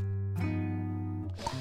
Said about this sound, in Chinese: 可是河马只管睡它的觉，照旧打它的呼噜。